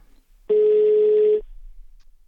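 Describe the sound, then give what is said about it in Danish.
A single steady telephone ringing tone, a loud, clean electronic beep lasting just under a second, sounds as a phone call is placed to a 20-year-old student, with quiet before and after and no voices. “Jeg ringer nemlig lige til Katrine, som er 20 år og studerende”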